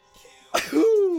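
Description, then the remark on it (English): A single loud cough bursts out after a quiet moment from a person who has just taken a big hit of RSO cannabis oil, then trails into a strained, voiced rasp that holds for a beat before fading. “I ain't sneezing because of this corona. I just took a big fucking hit of this RSO, baby.”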